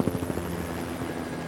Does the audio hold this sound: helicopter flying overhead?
yes